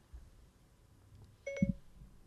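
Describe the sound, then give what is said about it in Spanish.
A short electronic chime of the Siri phone voice assistant activating on phones after someone says "Hey Siri": a bright two-note tone rising quickly, followed by a soft low thump, over a quiet background with no talking. “Se le está activando los teléfonos a todo el mundo ahora, Cuando pues hay duda.”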